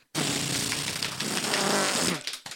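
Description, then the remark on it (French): A voice imitates a drum roll before announcing the video game of the year, a loud, rapid, buzzing lip trill that holds steady for about two seconds and then cuts off abruptly. “Euh, euh, le jeu vidéo de l'année, roulement de tambour.”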